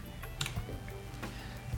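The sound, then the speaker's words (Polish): A pair of short, soft clicks a little under a second apart, an app's pause and play tones during recording, over a low steady background hum with no one talking. “Pauza play podczas nagrywania.”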